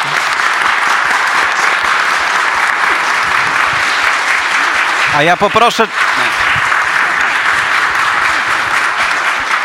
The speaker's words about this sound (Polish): ale na razie poproszę Was o brawa dla naszych dzisiejszych gości.